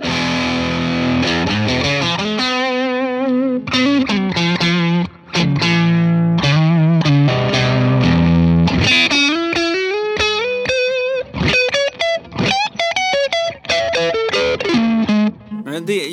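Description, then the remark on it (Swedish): An electric guitar plays a lead line through an overdrive pedal in its lead mode, drive knob at about half past two, with gritty, harmonically rich sustained notes and quick melodic runs climbing higher toward the end, loud and steady with no talking. “Den har ju lite så här grövre textur än vad Silverbean har helt klart och, och mer drive.”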